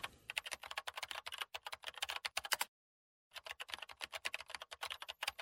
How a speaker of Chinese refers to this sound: 天知道他们哪里来的那么多的话要说，键盘的敲击声充斥在整个宿舍。